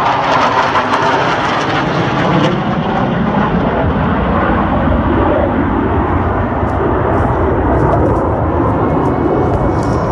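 A loud, sustained airplane roar fills the air as the aircraft passes overhead, a broad steady rumble with no speech, holding strong for the full duration.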